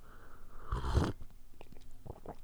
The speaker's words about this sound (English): I'm going in for a coffee sip.